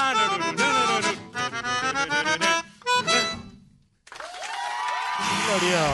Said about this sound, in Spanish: Gracias por los aplausos, señor operador.